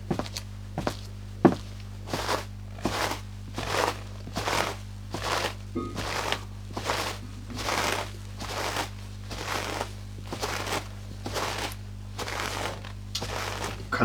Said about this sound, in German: Gehen wir mal ein bisschen durch den Schnee.